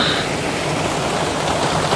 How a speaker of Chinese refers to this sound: 刚才我们就是一阵大雨哦，打雷、闪电、雷电交加，然后就倾盆大雨。到现在大雨没有停止哦。啊、哦，我打开窗户，大家听，欣赏一下。